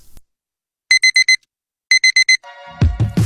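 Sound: alarm clock ringing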